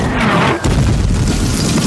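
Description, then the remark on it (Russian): Artillery shells explode on enemy territory, some hitting German trenches, in heavy, loud booms, a brief gap separating two blasts, each followed by a deep rolling rumble that fills the whole moment with no voices. “Красноармейцы с улыбками наблюдают за рвущимися на вражеской территории снарядами. Некоторые снаряды попадают в немецкие окопы.”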